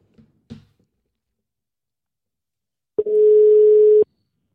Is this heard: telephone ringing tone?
yes